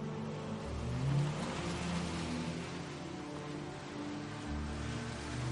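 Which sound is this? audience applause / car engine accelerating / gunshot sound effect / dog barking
car engine accelerating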